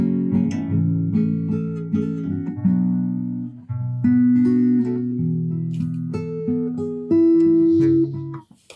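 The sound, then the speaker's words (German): A slightly out-of-tune guitar is played over a Discord call for a quiz, a steady series of strummed chords and plucked notes for several seconds, loud and unaccompanied by voices. “Ähm, die Gitarre ist wohl nicht ganz gestimmt, aber das ist egal.”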